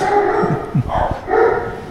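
Dogs bark in a quick run of sharp, overlapping yelps and woofs that rise and fall over a couple of seconds, fairly loud, with a brief pause in the middle.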